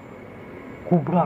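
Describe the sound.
After a stretch of faint background hiss, a voice blurts out a short, two-part crashing sound, imitating a huge tree toppling and slamming to the ground.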